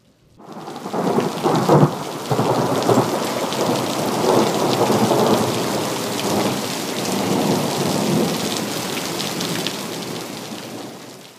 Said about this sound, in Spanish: Entonces, el varón de Dios, al ver que no podía volver al monasterio entre los relámpagos, los truenos y una imponente lluvia torrencial,